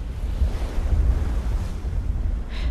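Heavy sea surf rolls and churns continuously under a steady roar of wind buffeting the microphone, loud and unbroken throughout, with no voices.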